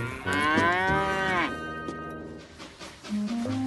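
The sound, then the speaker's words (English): A cow that has left its field lets out a long, loud moo, its drawn-out call dipping at the end, followed by fainter lowing and a second, deeper moo starting just before the end. “But Thomas and Percy were in such a rush, they forgot to shut the gate, and three more cows decided to leave the field and go for a walk.”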